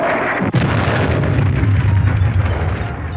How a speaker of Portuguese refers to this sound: Nossa! Ai, nossa, que genial! Mais uma explosão! Nossa! Eu sou uma personagem de rádio, idiota! Eu não vou morrer com apenas uma sonoplastia de bomba!